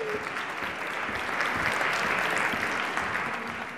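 An audience claps steadily, a dense wash of many hands keeping up a constant level throughout with no speech over it.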